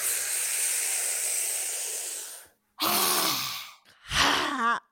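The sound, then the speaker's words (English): A group breathes in through their mouths as if through a boba straw during a breathing exercise: a long, steady hissing inhale drawn through pursed lips, followed by a shorter breath and a voiced, sighing exhale. No one speaks. “So you breathe in through your mouth like this like you're breathing in through a boba straw, and then.”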